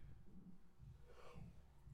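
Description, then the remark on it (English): A long, drawn-out yawn with a breathy, airy rush swelling in the middle over a low voiced groan, heard alone for about two seconds. “Just don't yawn like that.”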